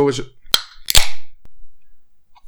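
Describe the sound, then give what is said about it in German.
A drink can is cracked open: a sharp metallic click followed by a louder pop and a brief fizzing hiss that quickly fades, with no talking. “Nice, die obligatorische Dose.”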